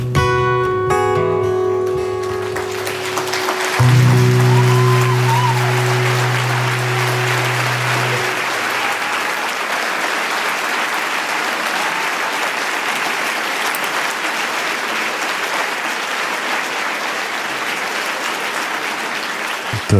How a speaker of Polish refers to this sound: Oklaski się jeszcze nie kończyły, trwały i trwały, e, tak jak koncert wyjątkowy, szczególny